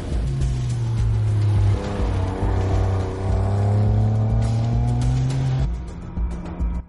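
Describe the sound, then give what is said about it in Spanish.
Loud, steady engine drone of three cars, a black Porsche, a red BMW and a white Porsche Panamera, driving by in a large tunnel toward the outskirts of Madrid, a low humming tone with rising and falling harmonics as they pass, continuous for several seconds before the noise drops away. No voices. “Primero el Porsche negro de Navas, detrás el BMW rojo de Nano y por último, siguiéndoles, el Porsche Panamera blanco de Mikkel.”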